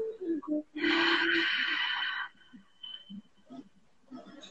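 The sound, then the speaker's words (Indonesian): A loud, breathy exhale, a long out-breath over a six-beat count demonstrated in a breathing exercise, lasts about a second and a half, with a faint hum underneath, then quiet, brief soft sounds follow. “buang nafas panjang enam ketukan seperti ini”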